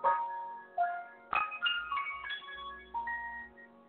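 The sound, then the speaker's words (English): Several notes are struck one after another on an acoustic wooden piano, each ringing out with bright overtones that linger and slowly fade. The tones are clear, with no talking over them. “I don't know if you can still hear it ringing.”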